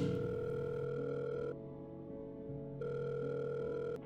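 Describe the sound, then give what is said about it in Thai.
A telephone ringback tone on an outgoing call made late at night: a steady, buzzy tone sounds for about a second and a half, pauses, then rings again. No one speaks. “ผมรีบโทรหาน้อยทันที”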